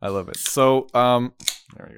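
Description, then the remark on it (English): A beer can cracks open with a sharp pop and a quick fizzing hiss, set between stretches of a man talking. “Just cracking a beer right there in the pod.”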